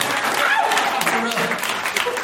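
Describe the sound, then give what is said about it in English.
An audience bursts into dense, steady applause for pizza that keeps going for a couple of seconds, with a voice or two faintly cutting through the clapping. “Day two, they clapped for pizza.”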